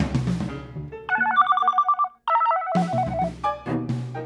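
A telephone rings with a loud, melodic electronic tone, sustained notes that break off briefly and then resume in a repeating pattern, with no one talking.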